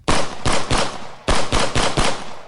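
Gunshots ring out from a building in two quick bursts of three or four, loud, each blast trailing into a dense reverberant echo. No voices.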